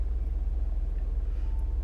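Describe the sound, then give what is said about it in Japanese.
Steady low rumble of a car interior while driving on the way to the airport, a constant deep engine and road drone with faint hiss above it, no voices, continuous throughout. “この音源は今空港に向かう途中で車内でと走りながら録音してますけど、”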